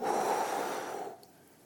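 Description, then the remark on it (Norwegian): A forceful, breathy exhale blown out by a voice, fairly loud for about a second before trailing off into quiet. “Jo, han bøyde seg over Adam, og så blåste han”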